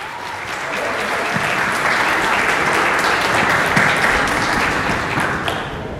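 Loud, sustained applause from an audience, a dense wash of many hands clapping that swells in and holds steady for several seconds with no voices standing out.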